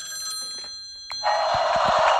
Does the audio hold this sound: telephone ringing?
yes